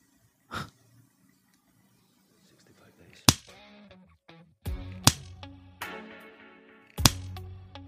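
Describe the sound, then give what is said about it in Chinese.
Five or six sharp, loud hand slaps of a spanking land at irregular intervals, each a crisp smack, with breathy gasps and soft whimpering sounds filling the gaps between them. “我再打几下，就痛成这样子了。”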